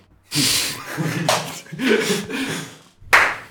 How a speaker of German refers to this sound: Ich mach ah, ja. den Klatsch und alles, ich lass alles drin einfach.